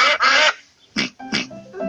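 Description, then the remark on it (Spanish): A handful of loud, nasal duck quacks arriving in uneven bursts with short pauses between, the first call long and drawn out, the rest clipped. No one speaks. “Despedíos de los patos. Adiós, patitos.”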